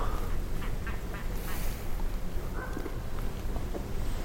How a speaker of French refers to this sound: grands corbeaux.